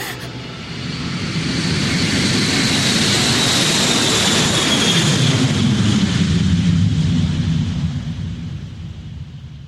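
A steady, loud roar of jet engines heard inside an airplane cabin, a broad continuous rumble with a hissing high edge that swells and then slowly fades toward the end, with no one speaking.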